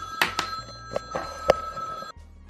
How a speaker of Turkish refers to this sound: Evet gündüz podcast kaydetmenin kötü yanında bu. Devamlı telefon çalıyor, kesiliyor yayın.